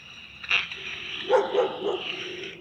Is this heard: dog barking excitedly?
yes